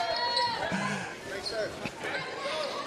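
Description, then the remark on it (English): A basketball, deflected out of bounds during a Columbia basketball game, thumps a few times on a hollow wooden stage, the bounces sharp but brief, set against a steady murmur of crowd chatter. “Ball deflected out of bounds, and the ball goes up on the stage.”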